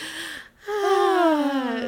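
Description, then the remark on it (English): A leopard yawning after roaring and standing up, before taking a nap: a short breathy vocal note, a brief pause, then a long, drawn-out groaning yawn that slides steadily down in pitch, fairly loud, with no talking. “Well, that's so fun because when she said it's yawning, you hear this”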